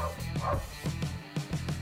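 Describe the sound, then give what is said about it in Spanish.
Dogs barking repeatedly outside in quick bursts, set off by noise outside, a steady rhythm of sharp woofs with a faint background murmur. “pido disculpas si se escuchan los videos de afuera, pero se está metiendo bulla afuera, entonces los perros ladran.”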